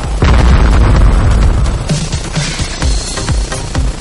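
A loud bomb blast erupts suddenly, its deep roaring rumble lingering and gradually fading while a series of smaller thumps and crackling debris sounds follow.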